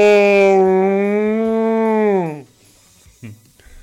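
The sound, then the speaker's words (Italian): A person imitates a cow with one long, loud, steady low moo lasting over two seconds, its pitch dropping as it trails off, followed by faint breathy noises. “Questo è come fanno le mucche, no? Mm, non viene bene la mucca, eh.”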